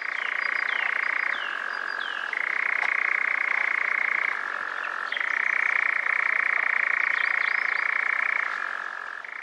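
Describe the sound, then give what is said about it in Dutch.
A European nightjar's song played from a small speaker hung by nets to lure nightjars to the nets: a continuous loud mechanical churring trill that shifts abruptly between two slightly different pitches, running unbroken for the whole stretch with no voices. “en bij die netten gaan we dan een spiekertje hangen met het gezang van de nachtzwaluw.”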